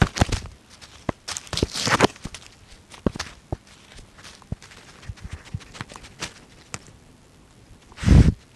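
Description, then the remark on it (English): A fox wearing a recording collar wanders on the outskirts of London, England, moving through undergrowth: crisp twig snaps and leafy rustles at an uneven pace, with a few busier bursts of crackling and one loud brush of branches near the end. “what you're listening to now is uh, is a fox wandering just on the outskirts of london and running through branches for about 12 hours wearing a uh, recording collar of my own design.”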